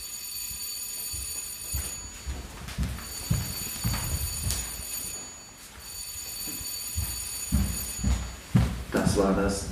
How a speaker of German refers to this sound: dritte Klingelzeichen.